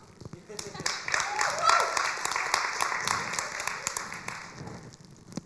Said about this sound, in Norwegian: Skal jeg gi en applaus til dere, eller?